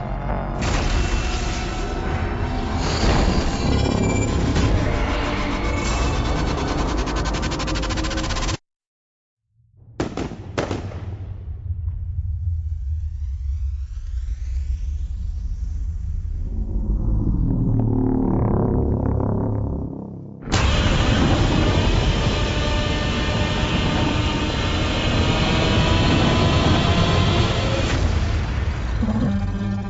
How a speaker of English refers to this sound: okay, you heard a trailer there for the Gareth Edwards film Godzilla, uh, also got starring, well, sort of not also got, we got starring uh, Aaron Taylor Johnson, um, Ken Watanabe, uh, Elizabeth Olsen, Sally Hawkins, Juliette Binoche, Bryan Cranston